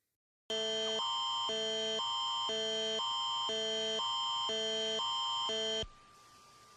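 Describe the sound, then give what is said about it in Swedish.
A loud, harsh Ontario Amber Alert emergency tone on a mobile phone, warning of an abducted child, rapidly alternating between two buzzing pitches for about five seconds before cutting off abruptly, leaving faint background hiss. “Eh, vi har ju ingen Amber alert här i Sverige ännu men jag tänkte att vi kunde lyssna på hur en sån signal kan låta om man har Amber alert-funktionen på sin mobil.”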